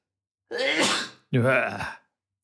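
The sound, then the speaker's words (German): A man's loud, voiced sneeze in two quick bursts, a drawn-in 'ah' followed by a forceful 'choo', with no other sound around it. “so ein Männerniesen, wo das ganze Haus zittert.”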